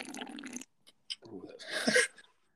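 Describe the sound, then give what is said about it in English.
Someone slurps kombucha, an active culture drink made by fermenting sweet tea: a long, airy sip, a few small wet clicks, then a second gurgling slurp that swells louder before cutting off. No one speaks. “Sorry, I ruined the slurp.”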